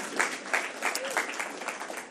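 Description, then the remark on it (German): An audience applauds, a dense, steady wash of many hands clapping at moderate volume for a couple of seconds, with a few louder claps standing out from the crowd noise. “Okay, da, ich, ich habe es jetzt nicht für so einen Applaus äh, gesagt”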